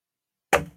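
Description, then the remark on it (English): A single sharp clack of dice rolled during a tabletop game, missing the board and striking a hard surface, fairly loud, with a brief rattling decay after a moment of silence. No one speaks. “Oh, that totally missed the board. All right different different dice.”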